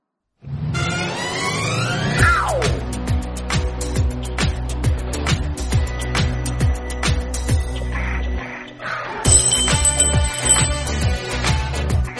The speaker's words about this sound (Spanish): Ahora ha tocado la campana